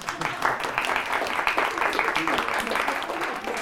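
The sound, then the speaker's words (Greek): A crowd applauds steadily for a woman celebrating her name day, a dense wash of many hands clapping at once, fairly loud and sustained without pause from start to finish. “Παρακαλώ χειροκροτήστε.”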